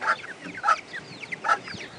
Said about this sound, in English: But we have one disaster, and we've got a, a little chick hen that's broke its leg, I think. Here it is.